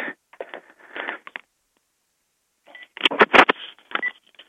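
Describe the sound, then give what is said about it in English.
A rapid series of electronic telephone keypad dialing tones as a caller switches to a different phone, short beeps in two bursts separated by a pause of silence, clear with no talking. “I'm going to just switch to a different phone right now.”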